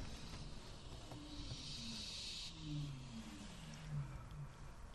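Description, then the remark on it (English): Four young barn owls hiss at onlookers in a harsh, breathy rasp that swells for a second or so, layered over the steady low rumble of the onlookers' idling car engine. “They're hissing, I can hear them hissing.”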